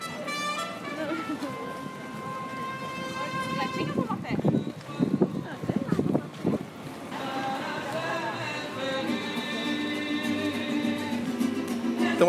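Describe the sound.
Outdoor harbor ambience alongside where boats are moored, with a steady wash of wind and water noise underneath. A voice talks over it and brief scuffing bursts come through in the middle.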